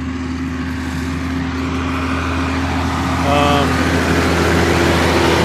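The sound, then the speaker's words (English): A steady mid-pitched engine drones continuously, like farm mowing machinery running at a constant pace, with a brief spoken utterance over it. It is machinery mowing hay at a farm during haying season. “oh these guys are mowing. I wonder if that means I should be mowing too.”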